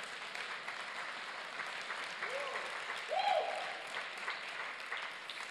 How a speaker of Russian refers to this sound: Дай Господу аплодисменты.